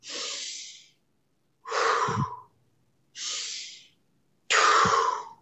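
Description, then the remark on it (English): Four slow, deliberate breaths in a breathing exercise alternate between a hissy inhale through the nose and a fuller, airy exhale through the mouth, each lasting about a second with short pauses between, clear. “you know, we use something called a 579 where we'll give people like five mouth breaths where it's just like Then we go seven nose mouth”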